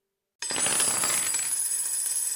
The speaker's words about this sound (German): So klingt Geld. Naja, so klingt Kleingeld. Das große Geld klingt anders.